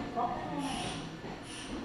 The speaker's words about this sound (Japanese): ただいま到着の電車は、特急サザン和歌山市行きです。次は三崎公園に停まります。The train is now arriving.